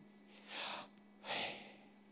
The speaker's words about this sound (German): Hast du schon mal auf dein Atmen geachtet? Beim Ein- und Ausatmen?